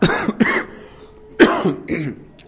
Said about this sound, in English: Sorry about the coughing during the talk.